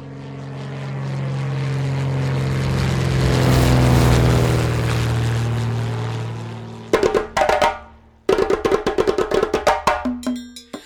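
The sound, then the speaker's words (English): A propeller airplane drones steadily, swelling louder as if passing by, then sputters into choppy, stuttering bursts before the engine note cuts in and out near the end. No voices. “Let's get on the plane. It's going to be a quick ride.”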